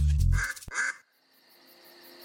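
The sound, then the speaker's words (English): A duck quacks twice in quick succession, loud, with harsh nasal calls, then the sound drops away to near silence. “She smiled as she heard her mother's quacks.”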